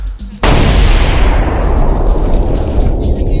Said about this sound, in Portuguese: Como é que foi? É uma bomba.